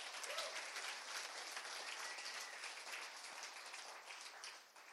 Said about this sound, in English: Come on, let's applaud the Lord Jesus Christ.